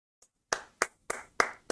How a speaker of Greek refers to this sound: Μεγάλο χειροκρότημα.